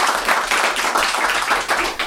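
A crowd applauds steadily, dense overlapping hand claps filling the room at a fairly loud, even level throughout, with no voices standing out.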